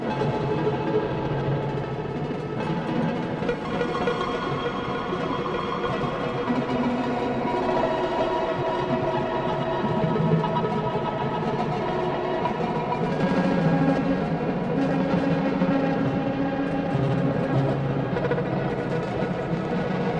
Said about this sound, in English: now we get a little bit of digital crunch to our otherwise uh, pretty clean uh, sound.